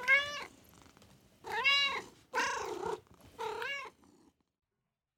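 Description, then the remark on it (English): Xavier, a large gray cat, meows four times, each call a drawn-out, rising-and-falling cry with short pauses between, ending in a brief low purring rumble before silence. “Xavier was a large gray cat who was just as lazy as Hallie had been warned.”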